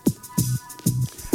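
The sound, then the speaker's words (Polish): A sparse Jamaican dancehall riddim loop from 1998, built from three basic sounds with added effects: heavy booming low thumps in a steady rhythm, each with a burst of bright noise on top, shouts in the background, and a faint sustained tone running underneath as the single melody. “a te e, tąpnięcia, e, szumy i krzyki, które tutaj słyszycie w tle oraz taki tylko jedna melodia została zrobiona przez e, no, prawdziwą legendę jamańskiej produkcji.”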